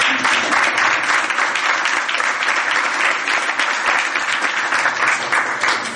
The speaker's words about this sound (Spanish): Entonces, pues con un fuerte aplauso otra vez.